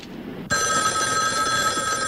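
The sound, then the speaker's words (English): A telephone bell starts ringing abruptly after a brief quiet moment, a loud, sustained metallic trill with bright steady tones that continues to the end, clear with no voices. “Yeah, what I've done is I've tapped this phone so that when it rings, it'll ring at the station house, too.”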